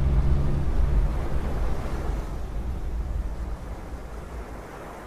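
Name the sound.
wind blowing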